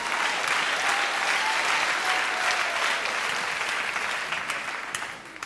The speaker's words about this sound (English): I celebrate this month my next year in full time ministry, 30 some years I've been in ministry, I started preaching when I was 13 years old. Yeah, you should clap for that one.